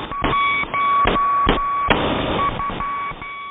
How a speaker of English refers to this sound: Number stations have been around since the First World War. Back then, these numeric messages were often sent using Morse code.